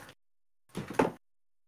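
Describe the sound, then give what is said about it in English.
A window slides shut with a short scraping rumble that ends in a soft thud, fairly quiet, lasting about half a second, with no one speaking. “Please listen to this holding music while Steve closes his window.”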